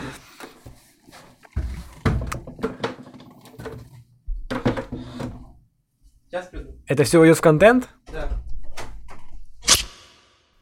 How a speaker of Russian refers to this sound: Стоп, стоп, я не могу так, нет, ну, ну, я не останавливаю запись, я поменяю стул. Уже три... четвертый выпуск я сижу на кривом стуле, не могу больше